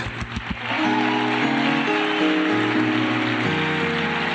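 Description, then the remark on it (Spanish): A church audience applauds in a dense, steady patter that holds for several seconds, while sustained musical tones, like an organ or keyboard, swell underneath after the first moment. “Y la iglesia aplaude.”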